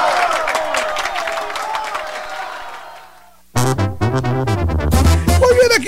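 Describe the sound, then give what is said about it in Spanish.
A crowd applauds steadily for about three seconds, the clapping thinning and fading out before a loud, tonal burst of music cuts in; the 'aplauso del día' applause of the Operación Vallarita segment on La Sabrosona 94.5 radio. “En Operación Vallarita de la Sabrosona, el aplauso del día.”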